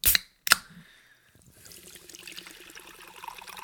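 Two sharp hissy bursts, then a steady trickle of pouring sparkling water with a thin, faint fizz, sounding rather flat, with no voices.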